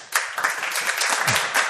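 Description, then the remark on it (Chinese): A short burst of applause: dense, steady crackle of many hands clapping at once, fairly loud and sustained without pause, with no voices heard over it. “终于到开讲时间了，此处应该有掌声是吧？”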